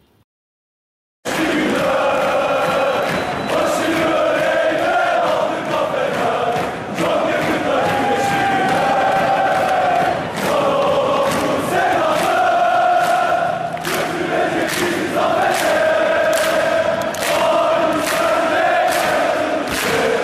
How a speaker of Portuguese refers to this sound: vamos ouvir aí Can Aladi Bu Yurekler, música da torcida do Fenerbahçe